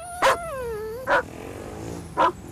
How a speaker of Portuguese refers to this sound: Feial e Caracol esperavam-nos à porta, muito agitados. Quando Feial os viu e percebeu que não vinha lá o dono, pôs-se a ladrar.